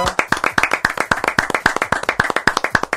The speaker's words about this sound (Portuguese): Olha quem tá chegando, JB. Ah! Aê! Maravilha. Uma salva de palmas para Marcos Pan.